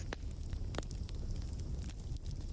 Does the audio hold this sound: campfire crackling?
yes